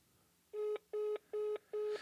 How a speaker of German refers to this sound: Ja, super, das war's. Seit wann gibt es das Besetzzeichen am Handy?